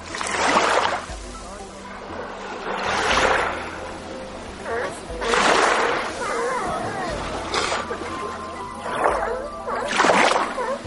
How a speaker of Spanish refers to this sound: Gritos, rugidos, maullidos, no sé cómo llamarlo, eso escucho, y saltan hacia el mar. Lobos marinos adultos marcan territorio y los jóvenes invitan a jugar al agua.